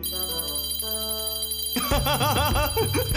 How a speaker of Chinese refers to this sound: 手套发出的铃铛声让龙觉得很开心。